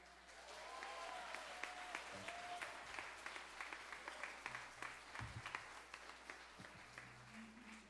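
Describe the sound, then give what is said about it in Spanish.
An audience applauds itself for always coming, steadily for several seconds, a dense wash of many hands clapping at an even loudness, with a few faint voices and whistle-like tones mixed underneath. “Un aplauso a ustedes que siempre vienen.”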